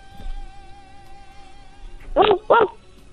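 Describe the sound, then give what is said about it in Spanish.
A child's voice imitates a dog barking, two quick woof-like yelps close together near the end, following a stretch of quiet with a faint steady hum in the background. “A ver, hazle ahora como un perrito.”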